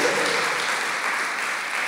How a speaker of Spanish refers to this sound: ¿No se le puede dar un fuerte aplauso a Jesús y colocar una sonrisa en su rostro?